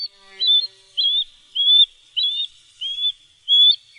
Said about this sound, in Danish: Det her er lyden af en fiskeørn.